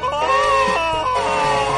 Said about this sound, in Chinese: 伴随着路路通绝望的叫声，火车开动了，喷吐着白烟驶向远方，一场伟大的旅程由此拉开序幕。